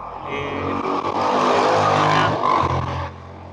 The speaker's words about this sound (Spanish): yo vivo en la parte de una calle principal, huevón, entonces aquí carro que pasa, carro que pasa.